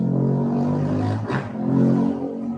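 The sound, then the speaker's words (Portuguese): A motorcycle engine revs loudly, a steady buzzing drone that surges with a brief roar midway, then settles back into a rumbling idle. No one speaks. “Olha a moto.”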